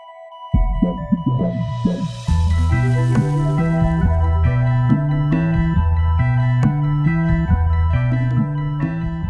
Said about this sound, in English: that's like the quintessential synth sound is that like space. I always think of uh, I always think of when you go to Disney World and you go on Space Mountain, and when you're waiting in line, the soundtrack is just all pew,